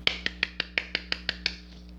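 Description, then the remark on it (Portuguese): A quick run of about nine sharp hand claps at a steady, brisk pace, followed by a couple of fainter ones as the clapping fades out. No one speaks. “Palmas para mim.”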